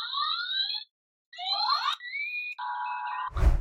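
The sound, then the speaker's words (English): Synthetic electronic sound effects from a Playmates Toys Starship Enterprise toy from Star Trek, the original series, set off by pushing it: warbling tonal sweeps, a brief pause, then steady beeping electronic tones, ending in a short burst of static-like noise. No one speaks. “This has lights and sounds. So if you push this, you'll actually hear.”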